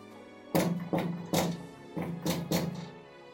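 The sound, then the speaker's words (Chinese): Heavy knocking with a giant door knocker on a dragon's cave door: six loud, booming knocks in two groups of three, the second set slightly quicker, with no voices. “听见了敲门声，火龙伸出他的鼻子，说道。”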